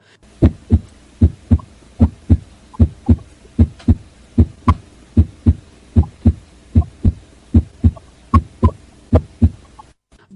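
A steady, normal human heartbeat with clear lub-dub pairs of thumps, the heart sounds made by the heart valves closing, repeating at a calm, even pace, about once per second, prominent with no voices.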